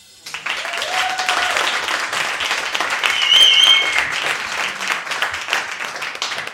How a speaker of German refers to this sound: das ist euer Applaus!